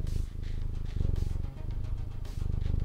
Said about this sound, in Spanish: Dice Matú también que miau. Es más, escuchen a, Matú ronronear.